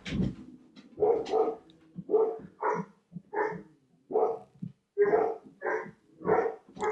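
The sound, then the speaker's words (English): Dogs upstairs bark repeatedly in a steady series of about ten sharp, muffled barks, with a few whiny yips mixed in and no talking. “They that's what they this is their squirrel bark and or somebody's walking by with a dog bark.”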